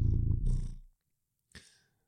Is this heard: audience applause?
no